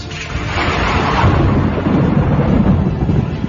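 A loud, rolling peal of thunder, a sound effect in a radio drama storm scene, rumbles continuously for a few seconds, deep, with a hissing rain-like wash over it and no voices.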